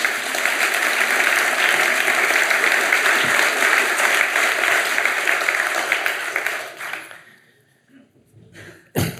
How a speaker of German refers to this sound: Und wir freuen uns, dass Sie, geschätzte Herren, heute Abend hier im Kaufleuten zum großen Tagesanzeiger Streikgespräch zusammenkommen. Herzlich willkommen. Applaus